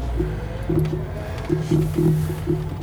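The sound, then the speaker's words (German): A car's dashboard warning light chime beeps repeatedly in short, uneven pulses over a steady low engine rumble, moderately loud, with no one talking. “Dann piepst hier die Kontrolllampe, da ist da was.”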